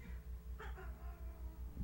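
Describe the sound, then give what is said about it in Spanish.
A low, rumbling growl from a furious female cat drones steadily throughout, pulsing faintly in rhythm, soft and distant, with a brief higher yowl-like rasp partway through and no talking. “Ya, ya, ya estamos escuchando a, a la lejanía sus, sus gruñidos.”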